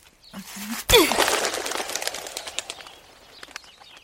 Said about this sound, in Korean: 고무줄을 빠져나간 돌멩이가 새를 향해 날아가고 곧이어 참새가 톡 떨어지는 모습이 보인다. 나뭇가지에 앉아있던 여러 마리의 참새가 화들짝 놀라 달아나는 모습 사이로 톡 떨어지는 참새는 엄청 크게 보인다.